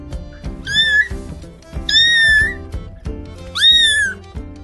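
A pampered cat named Rummana, living by a kitchen door, meows three times in a slow, evenly spaced series, each call a clear, drawn-out rising and falling mew, heard over a soft, steady rhythmic background.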